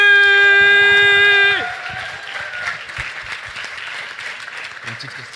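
An audience at a pitch fight event bursts into loud, sustained applause and cheering for the project Only à 3, dense clapping filling the sound after a steady electronic tone stops abruptly; the noise stays above 100 decibels.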